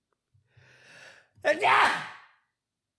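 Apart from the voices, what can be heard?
sneeze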